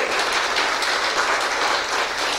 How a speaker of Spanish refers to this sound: Denle un fuerte aplauso al Señor Jesucristo.